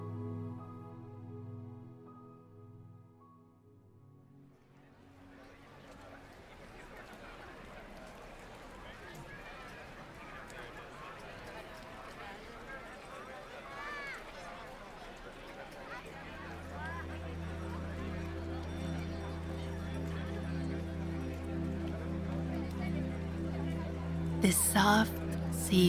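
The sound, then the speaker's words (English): Busy city street ambience on La Rambla in Barcelona, Spain, on a sunny afternoon: a soft tonal drone fades into crowd chatter and footsteps, a steady low hum joins partway through, and a few sharp clatters ring out near the end. “Sound design: Spanish city ambience”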